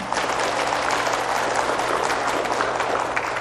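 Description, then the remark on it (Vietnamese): Loud, sustained applause from a large crowd, a dense wash of clapping that holds steady throughout with no pauses and no voices standing out. “À, quý vị cho một tràng pháo tay thật lớn ờ,”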